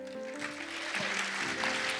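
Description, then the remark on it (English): An audience at a Mother's Day church service claps together in a dense, continuous patter that fills the room, steady and moderately loud throughout, with a sustained musical tone humming underneath. “Clap again for our mother of BMI.”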